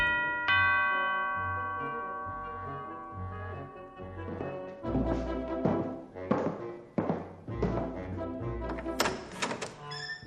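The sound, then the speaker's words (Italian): A doorbell at a villa chimes with clear ringing tones that linger and fade, then heavy thumps and a busy clatter of louder sounds take over. “Giunto a Villa Goldwyn suonò il campanello.”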